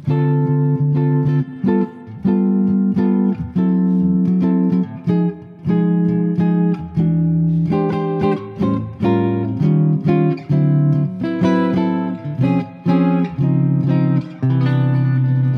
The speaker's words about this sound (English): I just call this one the flat five chromatic descending ending. And so, if we are ha- in the key of concert C again, we're going to end on a uh, one chord, a C major seven, but we have a two five one. It sounds like this.